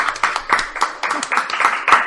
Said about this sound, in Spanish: Un aplausito, aunque seamos nosotros solos.